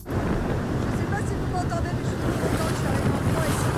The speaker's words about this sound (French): Pareil en bateau, et avec du vent, bah, on comprend pas des masses.